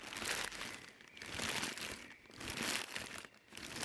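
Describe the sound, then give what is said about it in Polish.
Dry leaves crunch and rustle in steady waves under the feet of walking adults, like footsteps shuffling through a thick leaf layer, fairly loud, with no voices. “a gdy dorośli spacerowali, to szumu liści spod nóg słuchali.”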